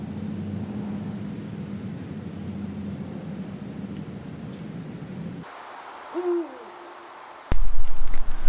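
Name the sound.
owl hooting at night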